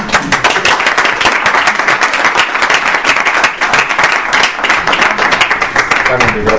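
Sustained audience applause, a dense, steady wash of many hands clapping at an even loudness for several seconds, with no one speaking over it.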